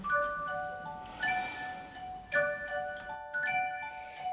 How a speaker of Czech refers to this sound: Zavírám oříšek pohádkový, slyšte už zvonky zvoní.